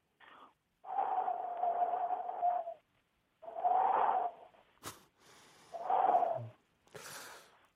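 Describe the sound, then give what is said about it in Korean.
A voice imitates a gentle, very soft and warm spring breeze with three long, breathy, hooting whooshes, each lasting about two seconds with short pauses between, followed by a faint rustle. “자 계절별 바람 소리 보, 가겠습니다. 자 일단 시작해. 봄바람 소리는 봄바람 아주 연하고 따뜻합니다.”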